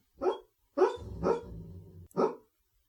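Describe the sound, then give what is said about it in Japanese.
A dog named Zeus whimpers in its sleep as if having a nightmare, with four short, muffled, low yelps, and a soft rumbling growl runs between the middle ones, with no talking. “大丈夫か なんでちょっとな、名犬ゼウスがなんか、ね、うなされてるようで。”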